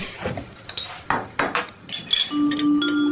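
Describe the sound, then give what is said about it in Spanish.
A few sharp glassy clinks and knocks, then a steady pour of water from a bottle taken from the refrigerator into a glass, with a sustained ringing tone that rises slightly as it fills. “Ella saca una botella de agua de la heladera. Se sirve en un vaso.”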